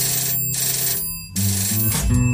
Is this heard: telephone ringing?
yes